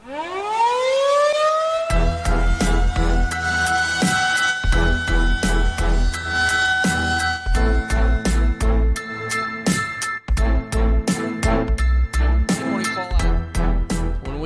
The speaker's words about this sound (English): Hit the air raid sirens.